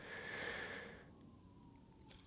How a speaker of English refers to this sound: Oh, now there's more siren. This is great. This is good content. This is really good content. I now hear several cop cars, and there it is. Very good. Very good. I think I think I heard a fire truck too.